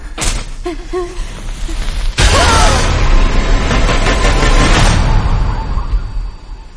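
A dense cinematic sound collage from the trailer for M. Night Shyamalan's latest film, titled Tiempo: a few short tonal hits and rumbles, then a sudden loud booming wall of noise with rushing, rattling texture that swells and sustains before fading out.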